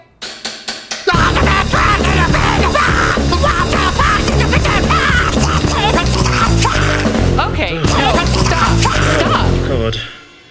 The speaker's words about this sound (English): Uh, listen, guys, it's way too early in the day for scream singing.